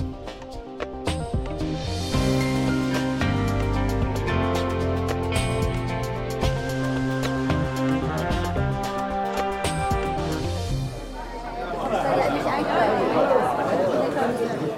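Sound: audience chatter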